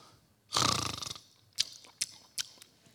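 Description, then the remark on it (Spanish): A person imitates a hungry-sounding snore: one long, rough, rasping snort lasting about half a second, followed by a few short, sharp clicks or smacks spaced apart. “Es un ronquido hambriento.”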